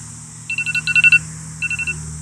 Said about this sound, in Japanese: 朝撮ってるってのがバレましたけど、えー、アラームを消して続けていこうと思います。